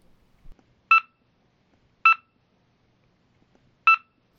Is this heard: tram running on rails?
no